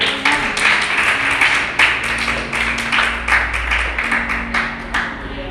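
A crowd gives applause to the Lord during a sermon, clapping together for several seconds, a dense, steady patter of many hands with some sharper individual claps standing out, fairly loud and with no voices over it.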